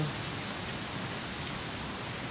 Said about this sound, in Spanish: Y em, pues aquí, antes del amanecer, mucho antes que los pajaritos salgan, estoy en la cascada a dos cuadras de mi casa, disfrutando de la naturaleza